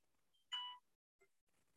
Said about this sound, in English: It's alarm. Oh, a jaunty alarm. Well, it's time to get up. It's not even my phone. It's, it's my wife's phone. The alarm going off, and she's in bed.